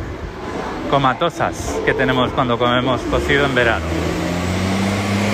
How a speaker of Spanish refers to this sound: Perdón por el ruido, pero estoy yendo al tren y la, calle hoy está muy concurrida con camiones, no sé bien por qué, pero, pero me está costando, o sea, no, no hay mucho, no hay mucho donde esconderse.